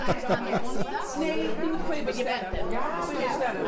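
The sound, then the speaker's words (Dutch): Dense crowd chatter fills the space, many overlapping voices talking at once with occasional laughter, steady and fairly loud throughout, at an afternoon gathering of residents at de Drecht in Amsterdam Zuidoost. “U hoort de drukte op de achtergrond, beste mensen.”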